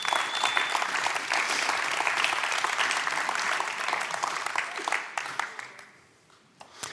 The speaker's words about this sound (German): Super, großen Applaus für den Christoph.